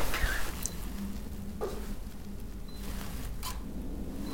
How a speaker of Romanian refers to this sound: Scoate telefonul. Gata, scoate telefonul. Scoate telefonul. Ce facem cu telefonul? Facem o poză.